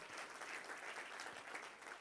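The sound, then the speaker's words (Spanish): An audience applauds God after a prayer, a steady, dense, even wash of many hands clapping at once, sustained and fairly loud throughout with no voices standing out. “Dele fuerte, fuerte el aplauso a Dios.”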